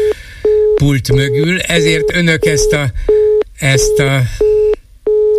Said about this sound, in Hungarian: bip bip bipet hallják, mert a telefonvonal megszakadt, viszont nem tudom, hogy van-e valaki a vonalban